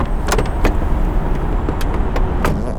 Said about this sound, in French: Oh, la bagnole est là, cool.